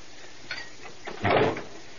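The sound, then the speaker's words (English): A door shuts with one solid clunk, preceded by a faint click from the latch or handle; nobody speaks, and it is quiet around it. “You misunderstood. I didn't say shut the door. I said leave me.”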